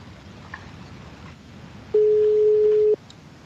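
A telephone ringback tone sounds while a call connects: one steady, one-second beep at a single pitch, loud and clear over a low background hum, with no one talking.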